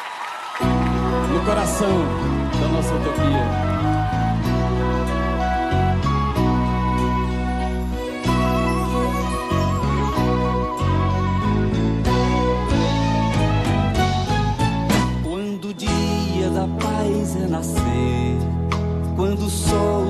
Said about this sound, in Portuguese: vamos ouvir um pouquinho da música …, do nosso poeta …